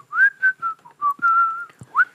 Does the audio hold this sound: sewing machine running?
no